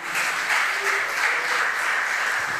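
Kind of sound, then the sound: crowd, loud applause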